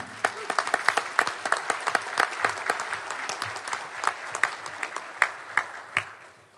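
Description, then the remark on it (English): An audience applauds to welcome a speaker, a steady patter of many hands clapping at once with sharper individual claps standing out, sustained for several seconds before tapering off. “Let's give him a hand.”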